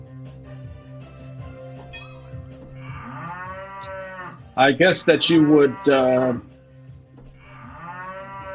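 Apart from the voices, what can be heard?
cow mooing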